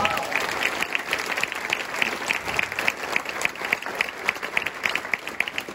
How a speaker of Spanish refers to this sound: ¿Alguien le puede dar un fuerte aplauso a Dios?